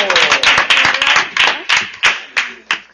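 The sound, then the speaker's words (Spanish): An audience applauds a correct answer in a school quiz contest, a dense patter of many hands that gradually thins into a few slower, evenly spaced claps before fading out. “Y esa respuesta ha sido correcta. Un aplauso.”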